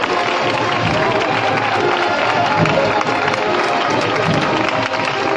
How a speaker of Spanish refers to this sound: Escucháis los aplausos de todos los aquí congregados.